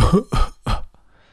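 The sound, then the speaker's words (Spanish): A voice imitates coughing with three quick, loud, harsh bursts in a steady rhythm, followed by a faint breathy trailing sound. “Bueno, es que, me he quedado bloqueado, no sabía qué decir y, y eso es más una persona tosiendo. Toser, ¿no?”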